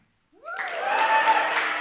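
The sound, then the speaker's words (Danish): After a moment of silence, an audience bursts into cheering and clapping on cue as the storyteller raises a glass during a telling of the Book of Esther, quickly swelling into a steady, dense roar of applause and voices that carries on to the end. “Øhm, og så havde jeg tænkt, at hver gang I ser, at jeg sådan i løbet af historien løfter glasset, så må I gerne øh, øh, juble og klappe.”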